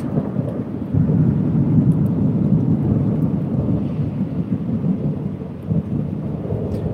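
A deep, continuous rumble of thunder rolls on for several seconds, loud, with steady rain pattering underneath and no voices.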